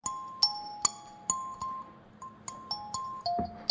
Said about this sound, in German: Und dann hat er diesen Benachrichtigungston gemacht, den wirklich jeder kennt.